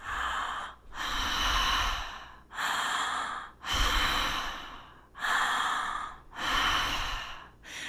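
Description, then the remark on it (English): Deep, continuous breathing in and out through the mouth, with full inhales and exhales flowing into each other without pause, about six breaths in a steady rhythm, clear with no talking; a demonstration of a breathing technique for use during sex. “So, an example of the breath that you would want to use in sex is a deep, full inhale and exhale in and out of the mouth with no pause between the inhale, no pause between the exhale.”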